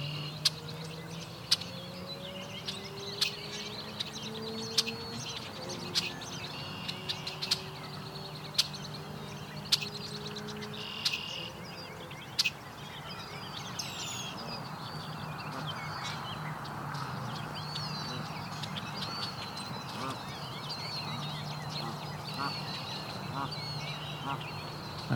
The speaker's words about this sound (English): two parents of Canada geese here with young. So two broods of Canada geese are here walking around. About six goslings total amongst the four parents.